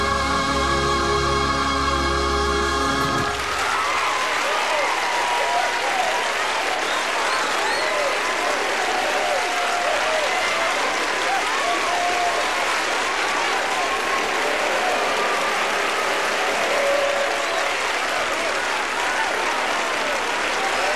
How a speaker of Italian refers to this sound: si è beccato anche gli applausi.